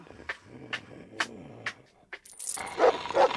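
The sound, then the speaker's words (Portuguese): Coins drop one by one in a steady series of sharp metallic clinks, then a louder burst of jingling and clattering coins spills out at the end, with no voices. “Vou pegar essas moedas e correr daqui.”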